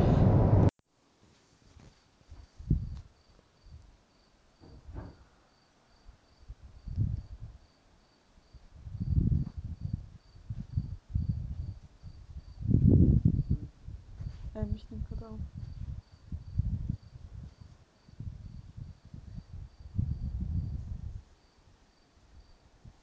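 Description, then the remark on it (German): Steady, rhythmic cricket chirping carries on through an evening outdoor scene in Spain at about 18 degrees, around half past nine, looking out over the sea under cloudy skies, with low, muffled rumbles and gusts rising and falling underneath, like wind or surf. “Ja, so hört sich das an, wenn man in Spanien bei knapp 18 Grad sitzt jetzt momentan, nur um halb zehn ist, Blick aufs Meer, von was bewölkt.”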